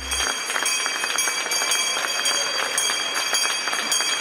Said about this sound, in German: Es gab nach langer Zeit mal wieder einen Börsengang in Deutschland und damit einen Grund, die Glocke auf dem Frankfurter Parkett zu läuten.